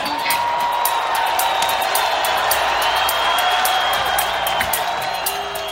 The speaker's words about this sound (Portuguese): Hoje a gente vai falar de vaia, como essa aí histórica